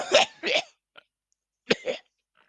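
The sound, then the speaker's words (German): A person noisily clears their throat in two harsh, raspy bursts, a brief click, then two more gurgling bursts like hawking and spitting, fairly loud with no talking. “Räuspernd ausspucken.”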